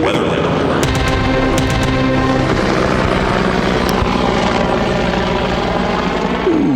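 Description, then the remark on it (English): The rotor blades of the Weatherlight Chopper 5 helicopter thump steadily and loudly throughout, a dense drone with rhythmic chopping, a few sharp clicks near the start, and no voices. “Welcome back to the Weatherlight Report, coming to you live from Weatherlight Chopper 5.”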